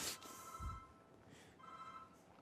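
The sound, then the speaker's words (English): A phone rings twice in a lecture hall during a class, its tonal electronic trill fairly quiet, separated by a short pause, with a faint thump and low room noise between rings. “So the issue, it's not my phone.”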